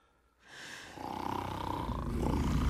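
Loud snoring from a man asleep: a harsh, rattling rumble that rises after a moment of quiet and swells into a long, fluttering breath, growing louder toward the end.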